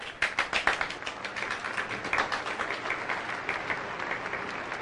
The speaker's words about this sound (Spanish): Allí hubo aplausos.